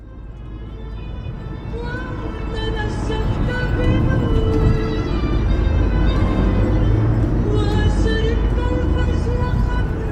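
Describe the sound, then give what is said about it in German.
A car drives through the busy city streets of Raqqa, its engine rumbling steadily under dense, continuous traffic noise, with faint indistinct voices mixed into the background. “Wenn man in diesen Tagen mit dem Auto durch Raqqa fährt, dann merkt man, wie weit der Weg dorthin noch sein könnte.”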